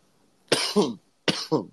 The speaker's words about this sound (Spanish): si me escuchan tosiendo, todavía estoy medio jodido de, del micoplasma.